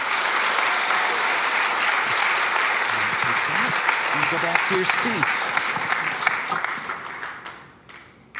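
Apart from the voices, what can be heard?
audience applause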